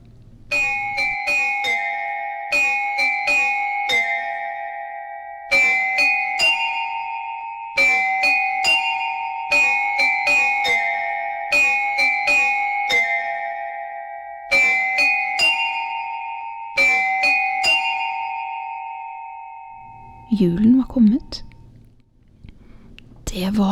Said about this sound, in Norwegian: Men utenfor ringte klokkene fra alle kanter.